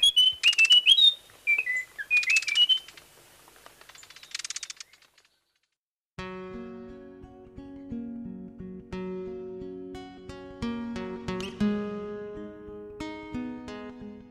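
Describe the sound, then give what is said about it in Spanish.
A Munchique wood wren, recorded for the Colombian Bird Sound Bank compiled by the Humboldt Institute and Cornell University, sings a few short phrases of clear, high whistled notes with brief pauses between them, about five seconds long, before music with instruments begins. “El trino del cucarachero de Munchique forma parte del Banco de Sonidos de Aves Colombianas, recopilado por el Instituto von Humboldt y la Universidad de Cornell.”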